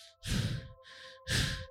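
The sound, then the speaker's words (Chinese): A voice imitates heavy, panting breaths: two loud, airy, rasping exhalations with a softer breath between them, a slow in-and-out rhythm and no words. “用喘息的声音哦，哎，动就算了，你还有气，这是什么状况啊？”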